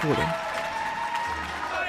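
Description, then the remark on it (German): A dense, steady patter of many people clapping from their windows during the pandemic, with voices and tonal sounds layered over the applause throughout. “Masken, überlastete Krankenhäuser und klatschende Menschen am Fenster.”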